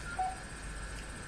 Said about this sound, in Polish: Ekran główny. Nacisnąłem gwiazdkę, by przejść do ekranu głównego.